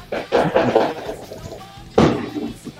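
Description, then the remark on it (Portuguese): Firework rockets bang off in a loose cluster of sharp, booming pops, then a lull before one loud, crackling blast that rings out and fades. “Soltaram até rojão, cara.”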